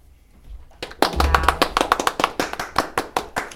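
A few people clap their hands after a short quiet start, producing a quick, steady run of sharp, crisp claps that continue to the end, with a faint voice murmuring underneath.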